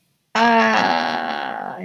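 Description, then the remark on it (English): A harsh, low buzzer from a soundboard button on recording software blares suddenly after a moment of silence, a dense nasal drone holding steady for about a second and a half before wavering slightly at the end. “See, buzzer.”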